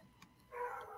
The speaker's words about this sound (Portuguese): Tem um cachorro latindo, tá vazando para vocês aí ou não? Não é meu, não.